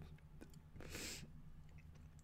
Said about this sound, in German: Nein, ich muss ja lachen wegen Digga, wenn man jetzt im ganzen Podcast Dinge ins Schmatzen hört, Digga, ich schlag die zusammen.